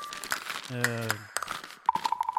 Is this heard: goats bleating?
no